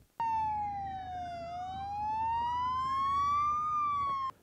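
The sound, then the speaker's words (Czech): A fire engine siren wails loudly, its pitch sliding slowly down and then back up in one long continuous tone over a low traffic rumble, with no talking, from a ceremonial convoy of Czech and Polish fire engines and special vehicles driving through a town on 26 August 2023 for a fire brigade's 150th anniversary. “V 11 hodin městem projela slavnostní kolona hasičských vozů a speciálů z Česka i Polska, včetně staré koňky.”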